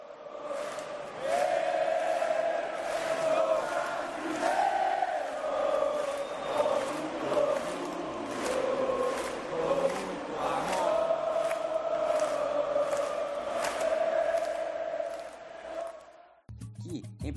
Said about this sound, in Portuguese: Começamos em 2002, com o tradicional grito brasileiro. Eu sou brasileiro, com muito orgulho, com muito amor.